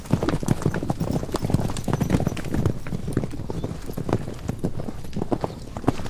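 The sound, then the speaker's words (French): Horse hooves clip-clop in a steady rhythm, each sharp hoof strike clearly audible over a low rumbling background for several seconds. “Bientôt, les quatre caramels furent assez forts pour être montés.”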